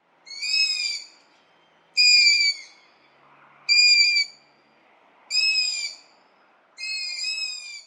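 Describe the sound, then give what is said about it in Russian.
Five drawn-out, high-pitched squeaking calls from long-eared owl chicks, heard in the evening through a window, each lasting about a second and spaced at steady intervals, with quiet pauses between them and no voices. “И тут из окна мы слышим писки птенцов ушастой совы.”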